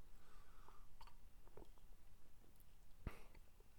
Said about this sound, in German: und äh, erstmal ein Schlückchen Bier. Prost, liebe Leute.